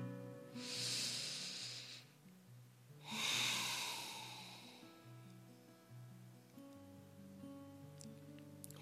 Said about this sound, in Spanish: Entonces, bueno, pues vamos a vamos a hacer siempre nuestra respiración, nuestra reflexión. Vamos a aterrizarnos en este momento presente, respirando profundo, dos o tres respiraciones conscientes.